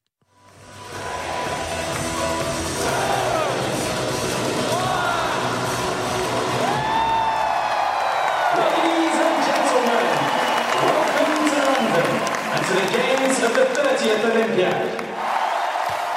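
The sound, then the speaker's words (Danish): A huge crowd in a full stadium in London roars continuously as the Olympic Games open, with applause, cheering and scattered whoops and yells blending into a dense, sustained wall of sound that swells quickly and stays loud throughout. “Nu skal vi lige høre, hvordan det lød for ni år siden på et fyldt stadion i London, da OL blev skudt i gang.”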